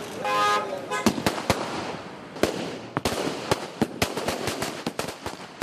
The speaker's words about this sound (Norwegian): Improvisert fyrverkeri utenfor huset til den nyvalgte presidenten Maitripala Sirisena.